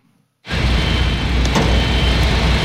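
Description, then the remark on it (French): After a brief hush, a loud diesel engine roars to life and keeps up a steady, heavy rumble of backhoe loaders at the Stade de France, where workers are laying the first layer of asphalt for a new athletics track. “Les bruits de tractopelles ont remplacé les chants des supporters.”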